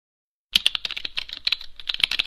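A quick, steady run of crisp plastic key clicks as someone presses buttons on the physical keypad of a Blindshell Classic 2 mobile phone, clear with no voices.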